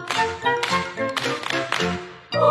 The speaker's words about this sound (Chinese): 我拍手，大家一起拍拍手。你唱歌，我跳舞，大家拍手来伴奏。